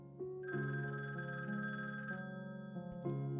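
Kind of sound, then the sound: household object, telephone bell ringing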